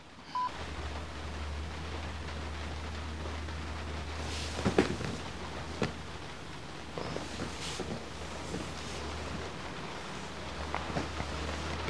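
Steady rain falls in a continuous wash of soft hiss, broken by scattered louder drips and taps, with a low constant hum underneath and no voices.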